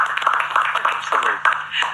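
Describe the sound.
A crowd applauds steadily for a couple of seconds, a dense wash of many hands clapping, with a brief voice or cheer rising through the middle.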